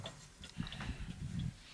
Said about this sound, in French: Ces horloges m'empêchaient de dormir quand j'étais petite. Leur tic-tac me dérangeait, et elles sonnaient toutes les heures, voire tous les quarts d'heure.